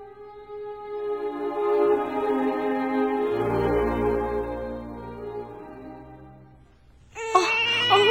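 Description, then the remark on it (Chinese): A sick baby cries in a long, drawn-out wail that slowly fades, then breaks into a sharper, higher-pitched outburst near the end. “宝宝快，宝宝别哭，孩子的爸，你快来啊！”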